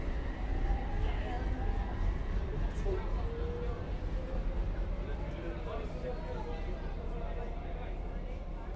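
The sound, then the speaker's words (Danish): Steady, loud rumble of a metro train ride in Copenhagen, with constant low roaring and faint whining tones, plus indistinct murmuring voices in the carriage underneath. “Det jeg er nået til København, og i metro er jeg på vej til Red Barnet”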